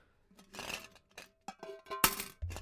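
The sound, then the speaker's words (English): A two pound coin drops into a swear jar with one bright metallic clink, preceded by shuffling handling noises and soft knocks, and followed by a brief ringing tail and low rumble. “It's a two pound coin, so you're only getting one clink, sadly.”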